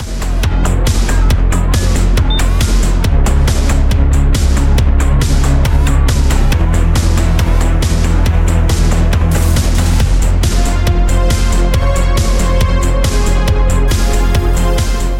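A synthwave track plays loud and continuous, with a steady driving drum beat over deep sustained bass and layered bright synth lines. No voices are heard.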